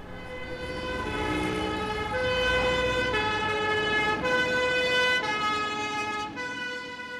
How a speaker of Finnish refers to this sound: Hälytys ajoneuvolta yöllä Pariisin keskustassa.